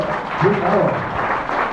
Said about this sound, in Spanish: Un aplauso.